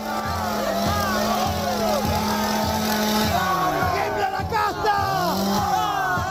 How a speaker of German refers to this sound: Der Dollarregen gehört zur Show, genauso wie die Motorsäge, die Millet nun zückt und rühren lässt.